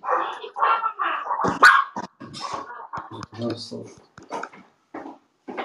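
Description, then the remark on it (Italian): A dog barks in a string of short, sharp bursts, loud, while people talk in between and over the barks. “Quando viene su lei, viene anche il cane.”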